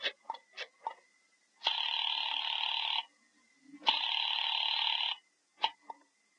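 Over a phone line, after a number is dialed, a few quick clicks give way to two long, buzzy rings separated by a short pause, then another click as the line picks up. There is no talking.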